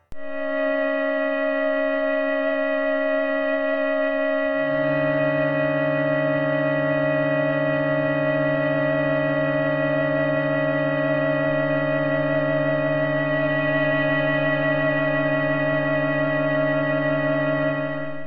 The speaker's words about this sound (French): Historiquement, on considère que c'est le compositeur La Monte Young qui est le premier à avoir créé de la musique uniquement à partir de bourdons, avec son trio for strings, dont voici un extrait.